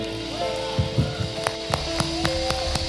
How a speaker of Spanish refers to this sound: Me aplaudo solo. Me aplaudo solo.